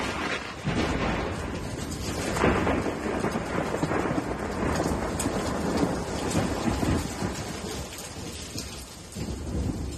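Thunder rumbles steadily through a heavy downpour, the rain hissing constant for the whole stretch, with no sharp break in the roar and no voices.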